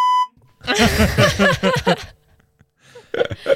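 censorship bleep tone

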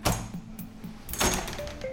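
door opening

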